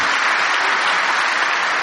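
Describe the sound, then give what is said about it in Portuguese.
An audience applauding to praise God, a steady, dense wash of clapping hands at a fairly loud, even level with no voices standing out. “Eu quero aplaudir o meu Deus por isso.”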